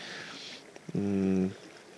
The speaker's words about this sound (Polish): Dobra, zaczyna mi się tu chyba woda gotować. Muszę sobie naszykować kawkę